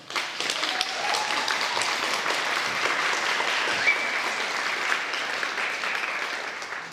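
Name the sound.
audience applause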